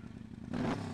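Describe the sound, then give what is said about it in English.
A motorcycle engine idles with a low, steady rumble, then revs up sharply halfway through, growing louder and rougher before settling back down, with no one talking. “Because this is your fucking motorcycle.”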